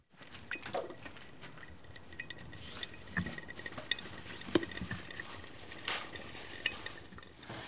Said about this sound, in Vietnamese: Tiếng cà phê nhỏ giọt xuống thành cốc nghe như tiếng suối chảy